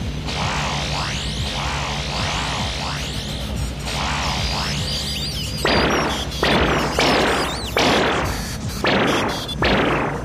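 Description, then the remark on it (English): A sci-fi electromagnetic pulse cannon fires at security robots: warbling, swooping electronic charge-up tones give way to a rapid series of about five loud, crackling blasts, each cutting off sharply before the next, with no talking. “I have the electromagnetic pulse cannon charged.”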